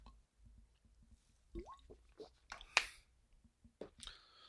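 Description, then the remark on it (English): Quiet slurping and wet mouth sounds as someone takes a few small sips of water to wet the palate, with soft swallows and faint clicks. “I think I need a little sip of some water just to wet my palate.”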